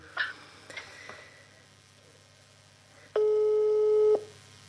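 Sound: telephone ringback tone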